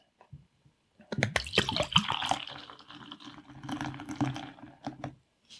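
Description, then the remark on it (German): Pale yellow beer from a small export bottle pours into a glass with a steady, gurgling splash and fizzing foam for several seconds, broken by a few louder sloshes before the stream tapers off. No one speaks. “Rein ins Glas.”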